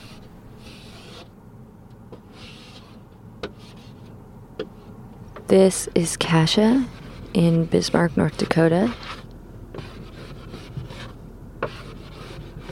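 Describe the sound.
Repeated rasping scrapes of many layers of ice being chipped from a rental car's windshield in the cold near Bismarck, North Dakota, steady strokes running throughout, with a person speaking briefly over them midway.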